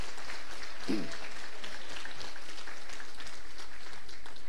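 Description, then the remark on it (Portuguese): A church audience claps together for a woman who serves communion, a steady, dense wash of applause from many hands that carries on throughout at a moderate level, with no one speaking over it. “Pode aplaudir você para a vida dela.”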